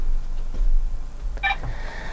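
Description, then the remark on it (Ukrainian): A brief electronic incoming phone call tone sounds once during a live broadcast, a short bright chime over a steady low hum, then fades into a faint lingering tone. No one speaks. “У нас є телефонний дзвіночок з вами.”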